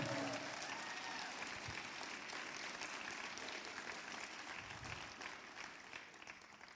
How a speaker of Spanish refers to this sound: Dale un aplauso ahora sí, fuerte.